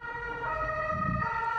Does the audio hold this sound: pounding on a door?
no